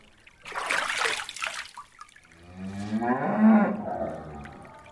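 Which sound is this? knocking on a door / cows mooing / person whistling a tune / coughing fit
cows mooing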